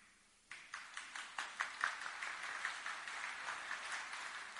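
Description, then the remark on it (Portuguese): Applause, led by the wives in the audience, starts abruptly after a brief quiet moment, with a few distinct early claps quickly swelling into a steady, dense patter of many hands clapping at moderate volume. “Essas palmas são preconceituosas.”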